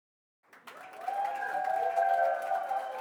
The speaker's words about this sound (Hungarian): Amit a háttérben hallottok, az nem más, mint a hétvégén Olaszországban rendezett országúti EB-nek az utolsó zajai